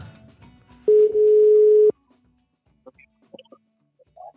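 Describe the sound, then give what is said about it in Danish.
A single steady ringback tone of an outgoing cold call to a man sounds for about a second, loud and clear, followed by quiet pauses with a few faint clicks and soft noises. “Han får et opkald nu. Vi ringer ikke lige midt i.”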